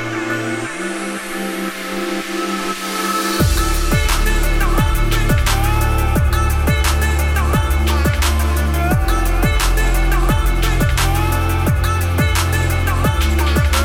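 A music track plays from a vinyl record, opening with sustained synth tones before a driving, steady electronic beat with punchy kicks drops in a few seconds later, loud and close with no talking.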